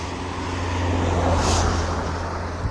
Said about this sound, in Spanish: Y, y el segundo porque, claro, en el momento voy a dejar que pasen los coches, porque si no, lo mismo no me escucháis bien del todo. Mm, resulta que ahora vienen muchos coches, vaya, por Dios. Dejaremos que pase este último.